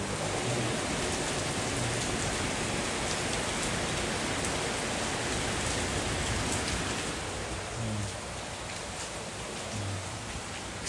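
Heavy rain pours down in a dense, steady hiss, close and fairly loud throughout, easing only slightly toward the end. No one speaks.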